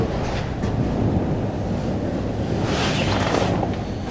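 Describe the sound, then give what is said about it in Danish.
A strong, steady wind roars across open water at Birkesø, heard at a bird-watching tower in the November cold, with heavy low buffeting and a broad rushing hiss that swells briefly toward the end. No one speaks. “Så man kan undgå at blive blæst væk, hvis man åbner her.”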